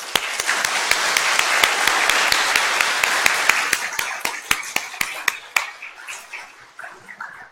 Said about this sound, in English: We can go ahead and help me give them a round of applause.